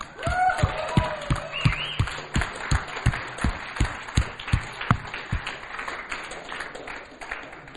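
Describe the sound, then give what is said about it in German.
An audience applauds mothers, with a few sharp claps standing out in a steady rhythm over the crowd's clapping and a brief cheer or whoop near the start, tapering off toward the end. “Ja, lass uns doch mal den Muttis nochmal einen fetten Applaus geben, hey.”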